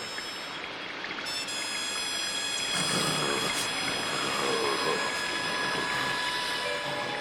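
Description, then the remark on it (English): A loud, steady roar of storm wind and rushing rain over a tournament fight between Goku and Kiran fills the whole stretch without a break, with thin high whistling tones ringing over the top. No one speaks. “Apparently, the fighters didn't hear the announcement over the storm.”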